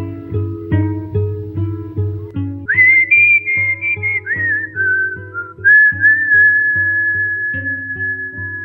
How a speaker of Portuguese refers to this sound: O tema começa assobiado, porque ainda está, vamos dizer, nascendo né, o tema da, sobre o assunto. Só entra a letra no tema depois que São Paulo realmente já começou a, a caminhar em termos definitivos.